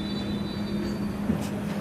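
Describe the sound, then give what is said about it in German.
A stationary train stands at a platform during boarding, already fairly full, humming steadily, a low droning rumble with a faint electrical whine above it and one brief clunk partway through. No voices are heard. “Wie, wie, wie komme ich jetzt eigentlich in diesen Zug rein?”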